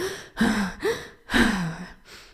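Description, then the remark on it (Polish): A voice imitates the breathless panting of someone running during training: four quick, breathy gasps with a strained, slightly voiced, falling tone, moderately loud, in an uneven rhythm with short pauses between. “Czyli nie biegniesz taka i.”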